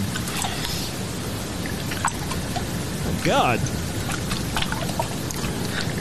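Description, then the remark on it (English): Steady wet sloshing of urine inside a condom as a man whips it around, a continuous rain-like swishing that fills the whole stretch, with a brief exclaiming voice partway through. “You can hear the condom sloshing.”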